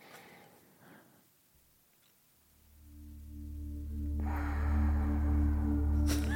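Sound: exaggerated heavy breathing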